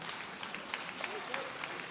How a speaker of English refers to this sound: Yeah, they had a half hearted hand clap like you in the first service, so it's okay.